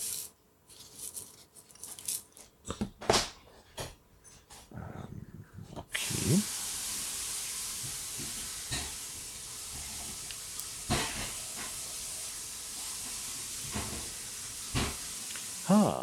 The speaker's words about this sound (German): Ja, der, der Pürierstab, der ist tatsächlich sehr mächtig.